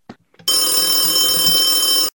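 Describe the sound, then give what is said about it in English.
A telephone rings for an incoming caller with a bright, sustained electronic tone full of steady high harmonics, starting abruptly after a couple of faint soft thuds and holding loud for about a second and a half. “Let's get our next caller, please.”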